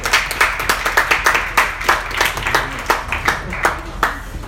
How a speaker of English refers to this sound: Thank you so much for attending. Thank you. Big round of applause.